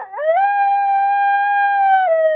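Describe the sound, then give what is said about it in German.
A single long, sustained wolf howl rising briefly at the start, holding a steady pitch, then dipping at the end, loud and clear with no other sounds. “Wer hat Angst vom bösen Wolf?”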